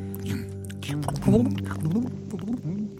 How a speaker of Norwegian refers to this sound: Hva var det for en lyd? I alle dager, hva var det for en lyd? Hører du bobler? Ikke ta gjørma mi, det er mitt gjørmehull.